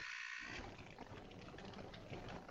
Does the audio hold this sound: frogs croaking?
yes